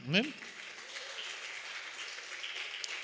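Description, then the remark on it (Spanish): An audience at a morning church service breaks into sustained applause for the Lord, a dense, steady wash of many hands clapping for about three seconds, opening with a brief rising vocal whoop. “Denle un aplauso al Señor esta mañana.”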